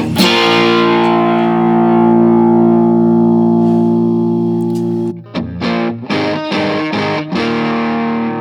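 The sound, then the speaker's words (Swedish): A heavily overdriven electric guitar, played through a prototype overdrive pedal set to full gain with its tone at about 12 o'clock, rings out a long sustained chord for about five seconds, then plays a series of choppy, punchy distorted chords. Loud, with no talking. “Nu står den faktiskt på fullläget.”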